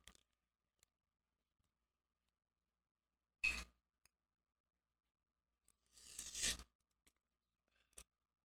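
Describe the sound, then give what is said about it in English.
Sounds of a wine bottle being opened with a wine opener: a short sharp scrape, a pause, then a longer squeaky grinding burst, with scattered small clicks and handling noises. No one speaks. “let me um let me just get this wine opener. It's on my bed. I didn't know this one I had to get it you know, open.”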